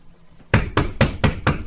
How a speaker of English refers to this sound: I think somebody's at the door. Hey. You can't even film stuff without people knocking.